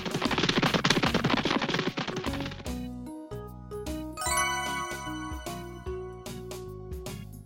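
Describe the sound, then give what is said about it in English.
A page-turn chime signalling that it is time to turn the page: a brief burst of busy, rattling percussion, then a sequence of bright, ringing chime notes that step along melodically and fade out. Loud, with no voices. “When you hear this sound, it's time for you to turn the page.”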